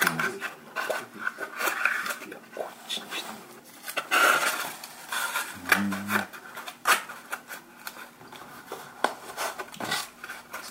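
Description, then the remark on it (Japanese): Masking tape being pulled, torn and pressed down to temporarily hold the upper cover of a smartphone stand: irregular crackly rustles and short sharp rips, with a brief low squeak as the roll unwinds midway. “今あのスマホスタンドの上の上部のカバーみたいなのができましたね、キングテープで仮止めをます”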